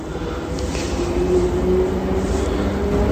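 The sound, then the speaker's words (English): A steady, loud rumble of a train carriage in motion, with dense low-end roar and a faint whining tone running throughout, continuous and unbroken, with no voices. “I don't see him yet, but he must be on this train. Um, this is quite a long train.”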